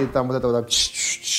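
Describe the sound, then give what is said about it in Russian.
A man speaks briefly, then imitates the sound of a fax machine sending a fax with three loud, hissing, screechy bursts in quick succession. “тын-тын-тын, да, ну вот звук да, э, факса да, да, аппарата.”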